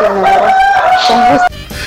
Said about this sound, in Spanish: Ahí está, le cantó el gallo a la señorita.